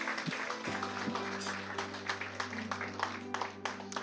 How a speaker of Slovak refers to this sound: Môžeme dať potlesk pánovi? Halelúja.